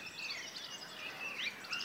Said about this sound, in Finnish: Milloin Peippo meillä esitti tämän? Pe- Peippo aloitti laulun. Se oli ihan viimeinen näistä hienosta laulajista. Vähän puoli viiden jälkeen aloitti ja taisi tulla samalle oksalle.